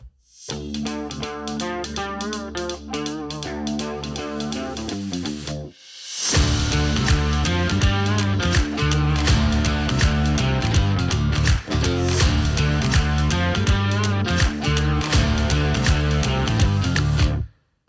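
A short instrumental music jingle plays on its own, opening with a moderate, sustained passage before jumping louder into a full, driving band sound with distorted, effects-heavy tones.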